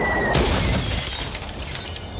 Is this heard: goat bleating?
no